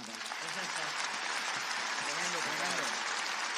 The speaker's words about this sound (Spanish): No, no, pero vamos a dar un aplauso